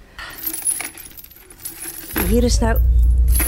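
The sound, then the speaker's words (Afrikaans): Metal chains rattle and clink in buckets and baskets full of chains for about two seconds, a busy jangle of scattered metallic hits, then a man begins speaking. “emmers en mandjies vol kettings.”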